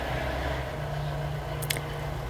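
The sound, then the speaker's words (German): A car rumbles past, its low engine drone holding steady throughout, with a brief sharp click near the end and no voices. “jetzt kommt hier ein Auto”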